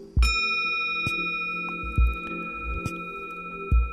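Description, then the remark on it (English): A bell is struck once softly with a wooden stick, and its clear ringing tones hang on and sustain throughout, with a few muffled low knocks recurring underneath at a steady pace. “The energy I gave to the sound, to, to the bell, go through the whole body of the bell smoothly.”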